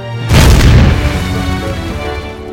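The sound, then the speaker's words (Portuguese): A sudden, powerful explosion of explosives detonated on the Ludendorff bridge at Remagen as Allied forces crossed it bursts out with a deep rumbling boom, then lingers in a long, rolling decay of debris-like noise that slowly fades. No voices are present. “E quando as forças aliadas estavam cruzando-a, os explosivos foram detonados, resultando numa forte explosão.”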